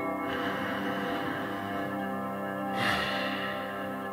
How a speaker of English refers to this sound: Continue for a few repetitions and get used to it. Practice this slow, deep, methodical way of breathing and let me know when you start to notice some positive effects.